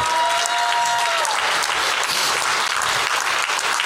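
Sustained applause from a crowd, a dense, steady wash of clapping that stays loud throughout, with a few faint tonal whistles or hums fading out early on.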